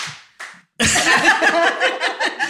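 A burst of enthusiastic applause, many hands clapping densely and loudly at close range for a couple of seconds, after a brief softer sound.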